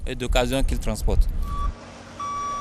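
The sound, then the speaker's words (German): A vehicle's reversing alarm sounds two steady high-pitched beeps, the second longer and louder, over a low engine rumble, just after a man speaks briefly, as used cars from Europe are towed out of the hold of a roll-on/roll-off car carrier at night in the port of Cotonou, Benin. “Die Autos aus Europa werden aus dem Schiffsbauch geschleppt.”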